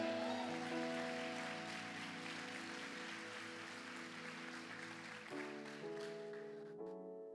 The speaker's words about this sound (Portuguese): Só os que creem dão glória a Deus aí, aplauda a Jesus.